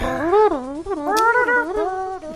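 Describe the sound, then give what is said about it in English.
A single voice crudely imitates a jazz tune, crooning and scatting with wobbly, sliding pitch in one continuous phrase, with no other sounds. “Man, that was the worst jazz impersonation I've ever heard, guys.”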